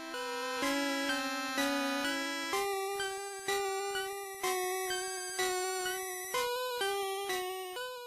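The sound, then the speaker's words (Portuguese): Eerie 8-bit video game theme for a town with a cemetery tower plays on its own, a bright, buzzy chiptune melody of steady repeated notes pulsing at an even pace, clear. “E é uma cidade que tem uma música meio estranha do jogo fazendo.”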